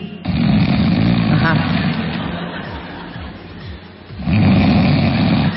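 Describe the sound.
A voice imitates its own snoring, said to sound like a man's: a long, rough, rumbling snore, a quieter raspy stretch, then a second heavy snort near the end.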